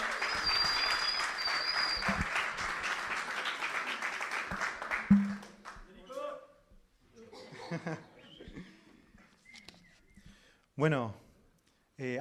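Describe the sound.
Steady audience applause for the final speaker at an event fills the first five seconds, a dense wash of clapping that then fades out, followed by scattered voices and a man beginning to speak.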